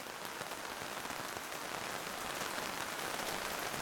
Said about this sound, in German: Es regnet in Strömen und wie kleine Stromschnellen rauscht das Regenwasser an der Bordsteinkante entlang, um sich am Ende der Straße in großen Pfützen zu sammeln.